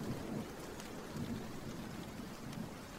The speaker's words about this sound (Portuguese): A chuva tropical caía em camadas encharcadas, martelando o teto enrugado do prédio da clínica, rugindo ao descer pelas calhas metálicas, salpicando no chão em uma torrente.